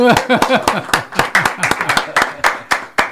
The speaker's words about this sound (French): On l'applaudit.